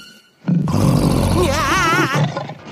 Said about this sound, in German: Das Knurren ließ ihm das Blut gefrieren. Er kannte es noch zu gut aus Afrika und es bedeutete Lebensgefahr, nichts wie weg.